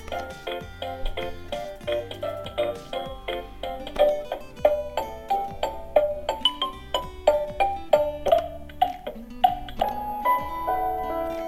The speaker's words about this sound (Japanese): 動画でおなじみのボイス、あの、BGM が流れますね。いやー、すごい。すごいですね。で、えっ、ー、と、機械の左上に小さいスピーカーのなんかスリットが入ってます。